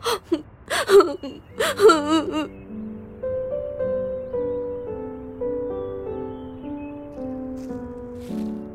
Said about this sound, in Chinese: 正在小王子哭泣的时候